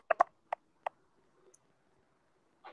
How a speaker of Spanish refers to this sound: Ya, oye, se escucha como un tecleo. Sí.